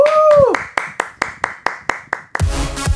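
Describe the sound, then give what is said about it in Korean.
On a Korean radio show, as a live performance is introduced, a voice whoops with a falling pitch, then about eight steady, evenly spaced claps ring out before breaking into a loud burst of applause and cheering at the end. “박수와 함성이요 우!”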